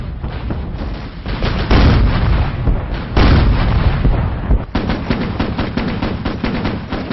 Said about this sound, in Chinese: 咱再试试吧。什么呢？飞机大炮去轰去，轰炸。